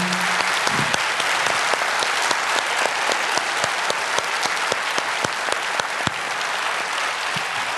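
A crowd claps steadily and loudly for several seconds, a dense wash of many hands with sharp individual claps popping out, continuing without pause to the end, applauding a guest at the close of a two-hour conversation.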